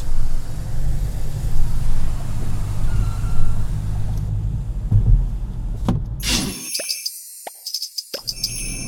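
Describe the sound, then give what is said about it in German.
A car driving on the A3 motorway (Autobahn) toward home gives a steady, loud low rumble of road and engine noise for about six seconds, then cuts abruptly to brighter, higher-pitched musical tones. “unterwegs auf der A3 in Richtung Heimat und mein Navi sagt mir, dass ich jetzt für die nächsten 50 Kilometer eine Stunde brauche.”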